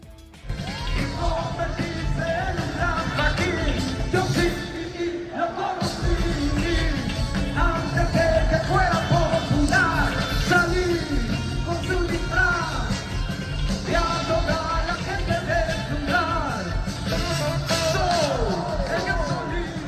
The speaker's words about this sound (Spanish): puso a bailar a más de 110 mil personas en el Zócalo de la Ciudad de México durante su concierto gratuito que ofreció la noche de este sábado.